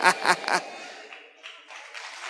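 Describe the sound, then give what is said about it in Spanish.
A chicken clucks three times in quick succession, loud, then continues with softer, scratchier murmuring clucks that trail on at a lower level. “Hasta las gallinas declaran que nuestro Dios es más grande que tú.”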